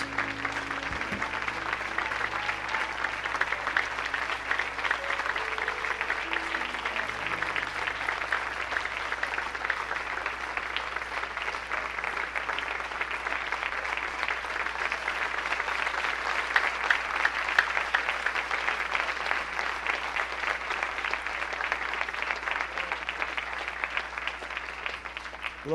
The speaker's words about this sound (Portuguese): Você pode ficar de pé no seu lugar, por favor? Vamos aplaudir o nome de Jesus juntos. Vamos exaltar o nome dele com as nossas palmas.